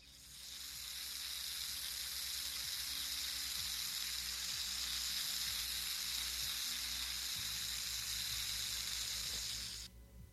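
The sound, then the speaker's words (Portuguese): Water sprays out of a leaking seal at a joint of the water main carrying water from Carnaubal to the town of Crateús, in a loud, steady hiss that holds continuously for about ten seconds before cutting off abruptly. No one speaks. “esse problema de vazamento d'água na adutora que leva a água do Carnaubal até a cidade em Crateus”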